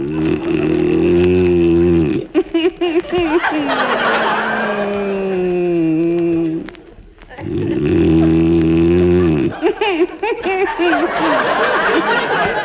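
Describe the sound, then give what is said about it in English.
A man snores loudly in a slow, drawn-out rhythm of long, rumbling, throaty breaths, with a whistling exhale between snorts and no talking. “It's the only way I can stop you from snoring.”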